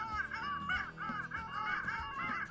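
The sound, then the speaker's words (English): A flock of long-tailed ducks at the ocean's edge giving repeated nasal, yodeling calls that rise and fall in overlapping bursts, clear and carrying over the water, with no one talking. “Sometimes wandering through our forests can bring you to the ocean's edge, where you might hear the sound of long tailed ducks, even before you see them.”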